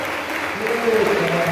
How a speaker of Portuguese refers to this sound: E levantar suas mãos e aplaudir bem forte aquele que é digno! Aplauda o Senhor!